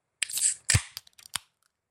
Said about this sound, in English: That's true, and we should crack them open and get going on these. So here we go in three, two, one, crack.